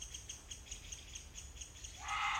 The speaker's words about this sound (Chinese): 吱吱吱吱吱吱吱吱吱，真好听。小鸟都飞走了耶！